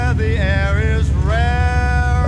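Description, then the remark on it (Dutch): The right engine of an aircraft in a home flight simulator in a garage starting up, with a loud, steady low rumble beneath a whining tone that wavers and then climbs in pitch as it spools, with no voices. “Kijk, dat, was het, um, dat was mijn rechtermotor.”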